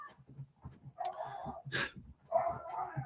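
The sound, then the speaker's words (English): Dogs fighting upstairs scuffle and bark in a muffled way, with several rough yelping and growling bursts over a few seconds and low thumping underneath. “I'll say my dogs are upstairs fighting right now, so I can hear that.”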